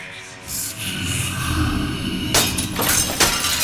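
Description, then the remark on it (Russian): A low, tense rumble builds before the remaining mirrors crack and shatter into dust in a series of sharp, bright crashes, with glass breaking loudly over about a second, and no one speaking. “Зеркала, все, что еще остались здесь, включая и стеклянную часть половины, треснули и рассыпались пылью.”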